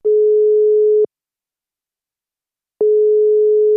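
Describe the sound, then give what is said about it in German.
A telephone ringback tone on an outgoing call: a steady electronic tone lasting about a second, a pause of nearly two seconds, then the tone starts again, clear and fairly loud with no voices. “Ich glaube, ich lüte dem jetzt mal schnell an.”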